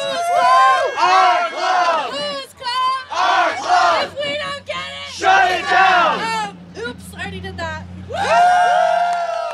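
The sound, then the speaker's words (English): A loud crowd cheers and shouts together in rhythmic bursts at a party held outside a closed topless dive bar in North Hollywood at 11 p.m. on March 18, 2023, many voices whooping, with a low hum running underneath in the second half. “Tonight, the Star Garden Topless Dive Bar in North Hollywood is closed, and the party is happening outside.”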